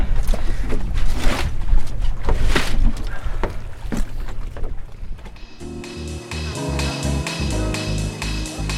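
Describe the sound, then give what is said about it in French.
A boat's outboard motor being warmed up runs loud with a steady low rumble, mixed with wind and splashing water, before music comes in and takes over for the last few seconds. “Je fais chauffer un peu le moteur, puis on jusque là-bas.”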